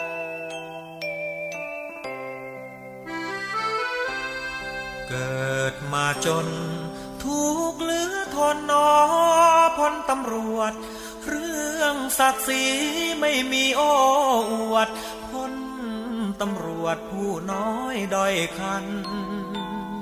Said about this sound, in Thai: เรื่องราวดี ๆ ผ่านพ้นไปเสียงเพลงพเพราะนะครับก็นำมาฝากกับคุณผู้ฟังกันเช่นเคย ช่วงนี้พักฟังเพลงกันก่อน ช่วงหน้ากลับมาอยู่ด้วยกันต่อนะครับ